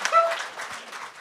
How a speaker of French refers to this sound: oui, ben on peut, on peut l'applaudir, vraiment. C'est hot, man. C'est hot.